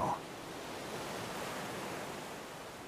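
Ocean surf rushes in a steady, broad hiss of washing water, swelling gently without distinct individual wave crashes, fairly loud and continuous with no voices.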